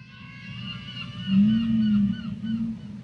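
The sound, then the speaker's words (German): A deep, sustained whale call moans steadily for over a second, with faint higher whistling tones drifting above it against a low underwater rumble. No voices are present. “Auch mit den Walen.”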